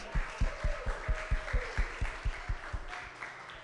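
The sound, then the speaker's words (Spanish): A crowd applauds at the close of a gathering, before leaving, with steady, rhythmic clapping, about a dozen even beats in unison over a broad wash of noise, tapering off toward the end. No one speaks. “¿Qué le parece si usted le da un aplauso antes de irnos?”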